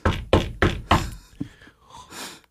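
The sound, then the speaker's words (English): Four firm, evenly spaced, loud knocks on the inside of a door or window, followed by a few faint, softer taps and rustling as things quiet down. “What is that he's you hitting on, by the way? Inside of the door or something, like a window.”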